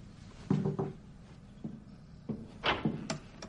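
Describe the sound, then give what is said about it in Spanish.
Calamity opens a door: a short low creak followed by a few scattered clicks and knocks of the latch and handle, with no voices. “Calamity abre.”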